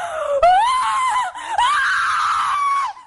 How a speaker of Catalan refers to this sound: Anem a escoltar crits. Anem a escoltar alguns crits.